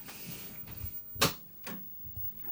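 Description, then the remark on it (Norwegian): An old Amiga computer with an internal hard disk powering up, the hard disk giving two sharp mechanical clicks about half a second apart over a low background hum. Moderately loud, with no talking. “Den lager litt annerledes lyd, for det er en eh, harddisk inni der.”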